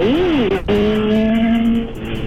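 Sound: motorcycle passing by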